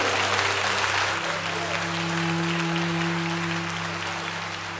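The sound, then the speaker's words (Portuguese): An audience at a church conference applauds Jesus steadily, a dense wash of clapping that holds at a loud level for several seconds, with a low sustained organ or keyboard tone humming underneath. “Dê um aplauso a Jesus por esse momento, obrigado.”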